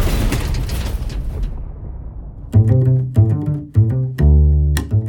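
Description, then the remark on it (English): A military truck explodes behind Dom's car in a heavy, rumbling blast and flips through the air, the blast fading over a couple of seconds; then a run of loud, punchy tonal stabs follows in a choppy rhythm. “A military truck explodes behind him.”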